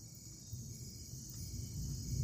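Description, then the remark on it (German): Steady, high-pitched insect chirring hangs over a soft low rumble: the sounds of a forest at night, with crickets droning continuously. “Doch die Geräusche des Waldes, die ihn gestern noch so friedlich in den Schlaf gesungen haben, hören sich ohne warme Decke und den Schutz des Feuers plötzlich wie ein Geisterkonzert an.”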